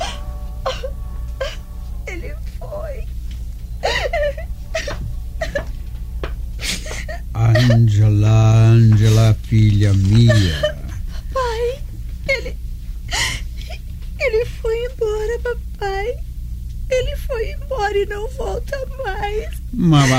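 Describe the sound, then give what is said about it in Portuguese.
A woman cries and whimpers, breaking into a loud, drawn-out wavering sob partway through, with emotional speech before and after it. “gastando suas lágrimas à toa.”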